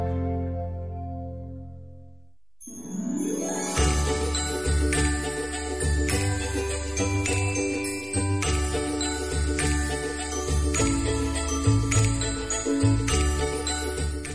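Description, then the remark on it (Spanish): Christmas-style farewell theme music for the radio show Ladrones de Sueños, with jingling bells: a short mellow opening, a brief dip, then a full, bright arrangement with a steady beat and shimmering bell tones, played loud with no talking. “lógicamente he cambiado la sintonía de despedida porque eh, corresponde.”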